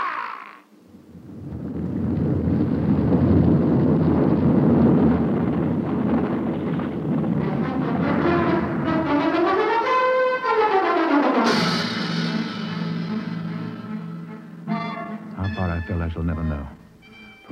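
A heavy, continuous roar of an avalanche of loosened snow thundering down a steep snowy slope toward a precipice on a bright moonlit night, deep and rumbling for many seconds, with a rising and falling whistling tone partway through before it fades.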